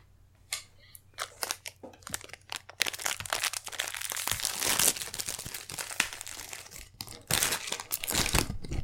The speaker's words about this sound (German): Ähm, und ich mache mal einen Pferdcookie auf.